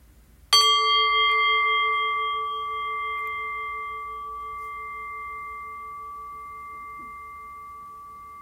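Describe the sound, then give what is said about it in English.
A single meditation bell is struck once, giving a bright metallic ring with several clear tones that hang in the air and fade very slowly over about eight seconds. “And so, ringing the bell.”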